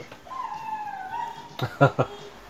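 A dog downstairs lets out a long, wavering whine that slides downward, then three short, sharp barks in quick succession, moderately loud.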